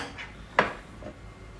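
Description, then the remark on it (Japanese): A utensil stirs protein batter in a bowl, mixing until the protein lumps are gone: soft scraping strokes around one sharper clink against the side, fairly quiet, with no one talking. “まあ、こんな感じでまあ混ぜていくんですけど、まあ、このプロテインのダマダマがなくなるぐらいですかねまで適当に混ぜます”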